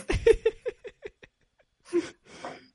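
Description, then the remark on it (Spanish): A person mimics a dinosaur roar, a string of quick fading vocal pulses followed by two harsh, breathy, rasping bursts, with no words spoken. “El ruido de dinosaurio, güey.”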